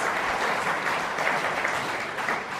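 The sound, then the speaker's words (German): A crowd at a book reading applauds steadily for the attendance of Kultusminister Schreier, dense clapping filling the whole stretch at an even, fairly loud level with no voices over it. “Ja, das ist ein Applaus wert, finde ich auch.”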